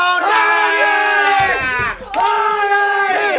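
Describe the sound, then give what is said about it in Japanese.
A voice imitates a racecourse crowd cheering and chanting "Oguri" for the racehorse Oguri Cap, ridden by jockey Yutaka Take, winning a Grand Prix race in his retirement run: two long, drawn-out, loud calls, the first nearly two seconds, the second slightly shorter, with a brief dip between them. “竹豊大栗キャップだ大栗キャップお疲れ様大栗キャップ涙涙のグランプリお客さん大歓声大栗コールだ大栗コール”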